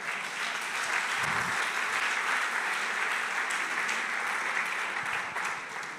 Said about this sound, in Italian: Vogliamo accoglierlo con un applauso.